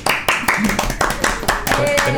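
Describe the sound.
A short burst of audience applause for the program's guest, brisk overlapping hand claps that stay fairly loud throughout, with some voices mixed in beneath the clapping.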